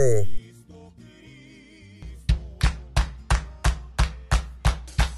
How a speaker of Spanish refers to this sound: Así que, corre intro.